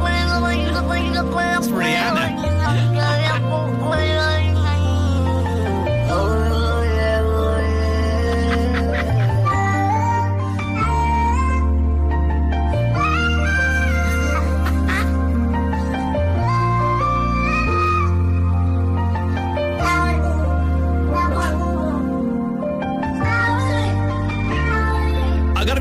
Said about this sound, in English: Cats do make incredible noises. Um, they they don't just they don't just meow. They kind of make these weird kind of rhythmical things. And someone has taken this is all the cats, different cats, all auto tuned. I love this so much.